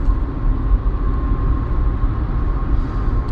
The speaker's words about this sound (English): Which is what you get when you live podcast with me driving in a car.